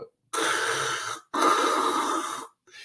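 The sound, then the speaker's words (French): A voice imitates the mechanical breathing of a CPAP sleep machine through a mask: two long, loud, hissy breaths in close succession, each about a second, with a brief start of a third, like a diving regulator. “Quand tu dors avec ça, sans bruit ambiant, ça fait vraiment comme un bruit de détendeur.”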